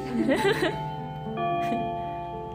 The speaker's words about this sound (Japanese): 今大学に行ってチャイムの音が入ってます すいませんまああってもいいかもしれんだいぶ長い余韻もね